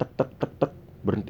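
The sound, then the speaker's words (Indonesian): A voice imitates footsteps with four quick, evenly spaced tapping syllables, fairly loud, then breaks off into a short spoken word. “itu di belakang gue tapak kaki itu bunyi empat kali tek tek terus hilang berhenti jadi gue berhenti suara tapak itu juga berhenti”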